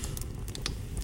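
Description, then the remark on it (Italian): A crackling fire gives off irregular sharp snaps and pops, a handful of quick bursts scattered over a low, steady rumble, with no voices. “Ciao, questo è il rumore del fuoco.”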